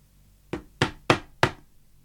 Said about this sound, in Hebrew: פתאום אחשוורוש נעמד על כיסא, דופק עם השרביט שלו על השולחן